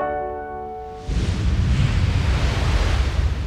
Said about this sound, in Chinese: 乖乖，你一定猜得到，这就是大海浪的声音。当然，也是海啸来的时候，大浪来袭的声音。